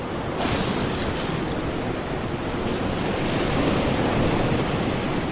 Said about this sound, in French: Comme c'est difficile de rester dessus avec les vagues qui deviennent de plus en plus grosses.